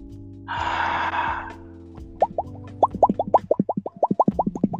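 A brief rushing splash gives way to a rapid series of wet plops and gurgling bubbles, like a hand churning water, growing denser toward the end. Fairly loud, with no talking.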